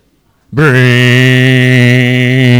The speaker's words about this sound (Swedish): Och vi alla som har fått nåden att bli föräldrar och har varit med om det när ett litet barn på vinglande ben reser sig mot en stol på ett halt parkettgolv och puttar flyttar stolen framför sig, då låter det...